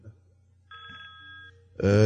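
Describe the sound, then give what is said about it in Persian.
A telephone rings once in a steady electronic burst lasting under a second, over a low background hum, before a person starts talking. “خب، این تلفن جواب”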